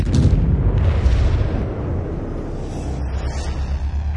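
Deep, rumbling booms fill the whole stretch, loud and continuous, with heavy low-end roar like a chain of explosions rolling into one another. No voices are present.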